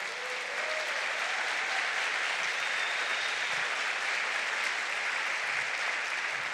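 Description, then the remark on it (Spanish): A church audience applauds the Lord loudly and steadily, a dense wash of clapping from many hands that fills the church for several seconds without pause, with a few faint voices barely audible underneath. “Pues denle un fuerte aplauso al Señor.”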